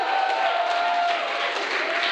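An audience applauds a woman for sharing with them that morning, a dense, steady wash of clapping that holds at an even level for about two seconds, with faint voices and a cheer or two mixed in.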